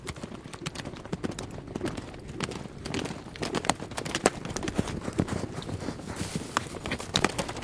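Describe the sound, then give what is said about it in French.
Steady clip-clop of horse hooves on a hard surface, a brisk repeated rhythm of sharp knocks running throughout, over a low rumble of background noise. “de Vaucouleurs à Chinon en moins de onze jours, montant les mêmes chevaux, suivant des chemins de traverse, évitant d'être vus”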